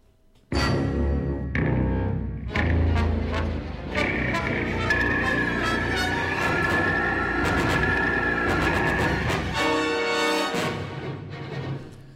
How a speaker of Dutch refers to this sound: In hetzelfde jaar gebruikte componist Leonard Roseman in de tamelijk bizarre eco-horror Prophecy de blasterbeam ook als het geluid voor het monster, ditmaal een gemuteerde beer.